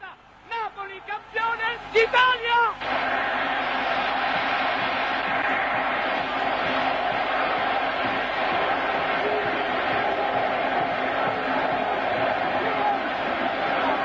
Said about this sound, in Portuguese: É, o barulho é só o barulho da torcida, né? Mas quando você vê, tem que ver, né? A coisa é visual.